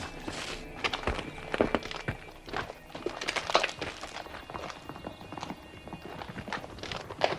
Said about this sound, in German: Hufschläge. Das sind Hufschläge. Hört ihr das? Ja. Mein Gott, hört ihr das?